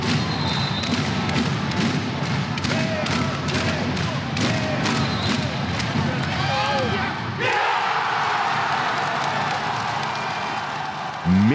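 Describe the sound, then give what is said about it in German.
A packed handball arena crowd at the PSD Bank Dome in Düsseldorf roars loudly, with rhythmic thumping and clapping through the first half. The noise then swells into a sustained, euphoric cheer near the end as the BRC scores in the last second to earn a 25–25 draw against the Rhein-Neckar-Löwen from Mannheim. “Der BRC holt in allerletzter Sekunde den Punkt und so klang ein großer Wurf der Erlösung.”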